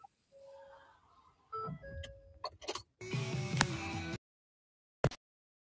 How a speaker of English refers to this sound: Uh, somebody's pager going off? Surely that's not my phone. Could be. Sound like an old school pager going off. That's one of them cheap real phones.